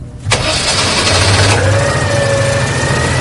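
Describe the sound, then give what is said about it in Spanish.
A classic car's engine cranks over for about a second, catches, and settles into a steady, rumbling idle, fairly loud with no talking. “Y el viaje lo hacemos en un coche que es mítico y que seguro que a muchos de vosotros os va a traer un puñado de buenos recuerdos.”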